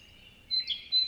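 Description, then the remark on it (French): A great tit sings its two-note song in a forest: a bright high note dropping to a slightly lower one, repeated twice in quick succession over a faint low background rumble, with no voices. “Elle se caractérise avec ses titu, titu, titu, titu sur deux notes répétées, et ça euh, pendant de longues minutes.”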